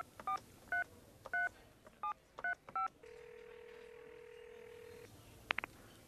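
Six short two-tone beeps of a phone number being dialed, followed by a steady ringback tone lasting about two seconds, then a brief click as the line picks up.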